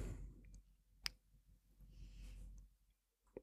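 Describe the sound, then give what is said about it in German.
A single sharp click stands out over quiet background hum, a computer mouse button pressed to select an annual subscription on a streaming service, with another soft click near the end. “Jetzt äh, klicke ich aufs Jahresabo.”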